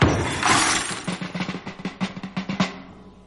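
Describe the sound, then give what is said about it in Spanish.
Glass in a door shatters with a loud crash, followed by a rapid clatter of falling shards and tinkling pieces that gradually thin out and fade. “No ha dejado un cristal nuevo, sano.”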